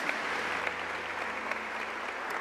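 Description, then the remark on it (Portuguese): Steady applause from a large standing audience for a team of pastors, a dense wash of many hands clapping continuously at an even volume, with scattered sharper claps standing out and no talking over it. “Então, eu quero que você já se colocou em pé, já aplaudiu, mas dê mais um aplauso para esse time de pastores, porque eles são o melhor.”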